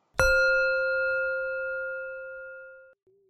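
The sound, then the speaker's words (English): A single chime is struck once and rings out clearly with a bright, sustained metallic tone that fades slowly for nearly three seconds before cutting off abruptly. “From time to time, you will hear a chime.”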